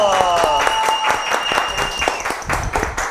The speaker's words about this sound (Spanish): Bravo, aplauso.